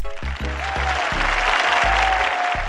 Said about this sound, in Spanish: Desde aquí les mandamos muchos aplausos.